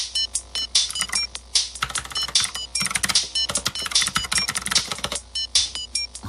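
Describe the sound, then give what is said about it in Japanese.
Loud, rapid clattering of a mechanical gaming keyboard, a keyboard made for playing games, being typed on, with dense bursts of sharp key clicks and brief pauses between flurries, with no voices. “これね、なんでカタカタ言うかって言ったらね、あのゲーミングキーボード、ゲームするためのあのキーボードなんで音がでかいんですよ。”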